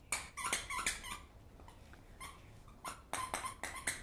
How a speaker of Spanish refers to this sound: Lo que están escuchando es mi perrito que está jugando a mis pies.